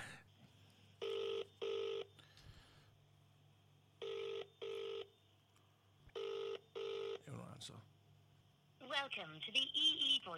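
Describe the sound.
A phone line rings out with a steady double-burst ringing tone, repeating three times with pauses between, faintly over a low hum, as a call is placed to a man, before a voicemail greeting starts talking at the end.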